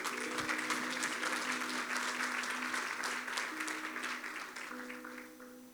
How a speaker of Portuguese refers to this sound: Pode dar um aplauso, Jesus.